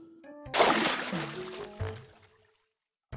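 A loud, sudden splash as Keli, flung through the air, falls into a pond, bursting in after a brief tonal lead-in, then settling into sloshing and bubbling that fades over about two seconds.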